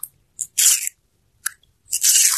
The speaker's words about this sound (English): No turtle devouring a watermelon, carved turtle into a, the shape of a boat. Good carving on the watermelon.